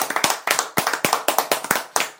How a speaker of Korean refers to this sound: 박수 한번 쳐야 됩니다.